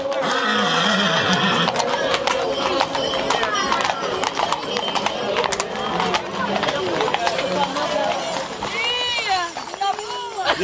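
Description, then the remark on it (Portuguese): Several horses clip-clop along hard ground in a steady, overlapping patter of hooves, fairly loud, with a crowd murmuring throughout, on a horseback pilgrimage from Moita to the Sanctuary of Nossa Senhora de Ares. “olha, agora é que vamos pagar a promessa ao Santuário de Nossa Senhora de Ares, mas vamos a cavalo.”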